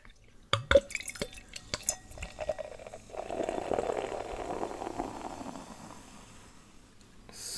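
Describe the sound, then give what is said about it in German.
Lower Franconian Landbier, brewed in the town, is poured into a glass. A few sharp clinks and splashes come first, then a steady gurgling, foaming stream that gradually tapers off and ends with a short noisy burst. “So, schon ist es im Glas.”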